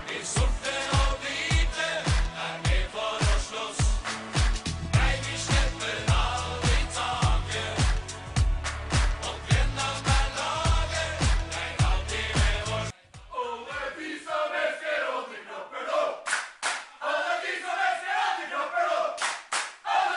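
A rousing football supporters' song with a pounding beat and massed voices singing; about two-thirds through, the backing drops out and the crowd keeps chanting the tune on its own.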